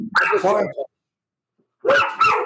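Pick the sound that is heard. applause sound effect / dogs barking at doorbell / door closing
dogs barking at doorbell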